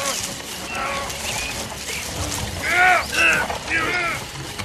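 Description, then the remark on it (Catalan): A caravan creaks as it is pushed behind some bushes, with a low rumbling scrape under a run of squeaky, arching creaks that grow louder toward the end in three strong squeals. “Au, ajuda'm a empènyer la caravana darrere d'aquells matolls, abans de que la vegi ningú, va.”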